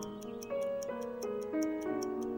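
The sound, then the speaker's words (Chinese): A pocket watch held in a hand during hypnosis ticks in a steady, even rhythm, crisp little clicks about three per second, layered over soft sustained musical tones that shift pitch with each beat. No one speaks. “请看着我的手势，听着我的声音，你的眼睛跟随着我手里的怀表，”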